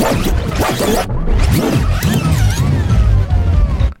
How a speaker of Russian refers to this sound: Э, и иностранные, надо сказать, жевали кассету. Вот этот вот страшный звук, когда э, идет запись, и вдруг ни с того ни с сего...